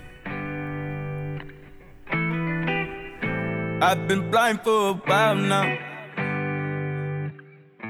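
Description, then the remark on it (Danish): A new hip hop song plays loudly, with heavily processed, effect-laden vocals over sustained synth chords that shift in steady blocks. “den her sang, den er jo helt ny”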